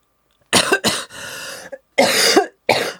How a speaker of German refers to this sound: Oh, oder, danke, ich muss gerade so husten, das war...